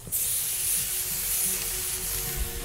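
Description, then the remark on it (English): A steady sizzle of meat cooking on a grill, a dense crackling hiss that holds at even loudness throughout, with no voices. “That is the sound of meat on a grill.”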